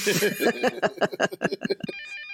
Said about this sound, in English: The rest of you, I imagine, are probably sleeping, except for Mira who wakes up in the morning to the sound of the phone. And she can tell by the ring that it's her parents.